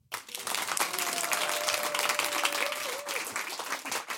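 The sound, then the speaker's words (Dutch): Sustained applause from a full audience in the theatre hall of CC Amstel, a dense, steady wash of many hands clapping for about four seconds, with a faint whistle or voice tone gliding through the middle before it tapers off. “Dus eh, graag de handen op elkaar, dan weet het publiek dat u ook hier zit.”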